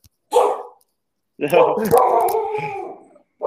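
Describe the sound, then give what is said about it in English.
A dog barks: one short, sharp bark, then after a brief pause a longer, loud run of barking and yowling that gradually trails off. “dog wanted to join in today.”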